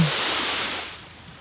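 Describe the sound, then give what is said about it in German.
A wave washes up on a beach, a broad steady hiss of surf that slowly fades as the water draws back, heard alone with no voices. “Mit jeder Welle immer mehr Schwere.”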